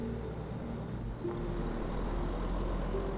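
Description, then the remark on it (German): A bus decorated with fairy lights and golden stars, a huge fir tree on its roof, approaches and slows down, its engine rumbling with a deep, steady drone and faint whining tones, the sound shifting slightly as it slows. No voices are heard. “Während der Bus näher kommt, wird er immer langsamer.”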